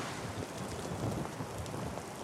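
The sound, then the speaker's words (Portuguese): Heavy rain pours down in a dense, continuous hiss, fairly loud, with a low rumble underneath like thunder, as the rain grows heavier near the border of São Paulo and São Caetano. No one speaks. “Aí a chuva aumentou e a gente teve de correr deixando o nosso bolsonarista para trás.”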